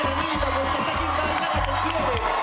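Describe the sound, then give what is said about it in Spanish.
A large festival crowd at the Quinta Vergara cheers and applauds a performer in a loud, steady roar of clapping and whoops, applause that earned the Gaviota de Oro award, with a low, thumping backing sound faintly underneath throughout. “los aplausos del público provocaron que le otorgaran también la gaviota de oro.”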